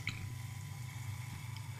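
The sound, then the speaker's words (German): Wheat beer being poured into a glass, a steady gurgle and fizz of liquid filling it, with soft drips and splashes, fairly quiet and continuous throughout. “Und einschenken kannst du auch nicht.”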